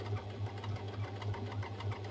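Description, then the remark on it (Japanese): A sewing machine runs steadily, making a strange, suspicious noise: its motor hums with a rapid, rhythmic knocking pulse that repeats several times a second, sounding slightly rough and labored. “なんかミシンが怪しい音してきてやだやだまあねこれ壊れたらねほんとマジで職業用ミシン手出しちゃおうかなとか思ったりしてるけどね”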